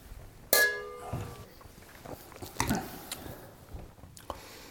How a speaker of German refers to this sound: Soll ich nochmal was nachschenken oder fandst du den doof? Äh, nee, kannst du noch was nachschenken. Ja. So, cheers.